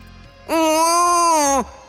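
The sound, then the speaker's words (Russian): A single loud, sustained infant wail lasting about a second, steady and high-pitched with a strained, tonal quality, with no talking around it. “не унимался младенец.”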